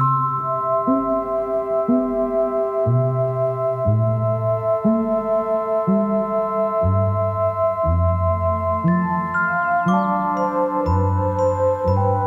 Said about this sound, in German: ihre Musik ist also auch komplett auf äh, Synthesizern gebaut, mhm. also die Töne.